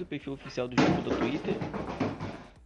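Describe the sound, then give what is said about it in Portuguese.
A single dull thumping bang from a small dog playing lands partway through, fairly loud, with a brief rumble after it while someone keeps talking steadily over the noise. “Esse foi um barulho do meu cachorrinho, gente, brincando aqui.”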